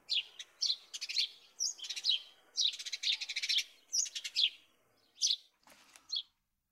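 Sparrows chirping busily together in the early morning, perched on tree branches, a lively chorus of quick, high tweets in bursts and short trills, clear with brief pauses between, no voices present.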